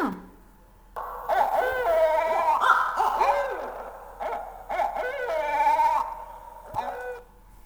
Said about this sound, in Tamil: அடுத்ததாக இரவு நேர பறவையான ஆந்தை எழுப்பும் ஒலி பொது பொதுவாக ஆந்தை கத்துறத என்னன்னு சொல்லணும் அப்படின்னா ஆந்தை அலரும் ஆந்தை அலரும் ஓசையை கேட்போமா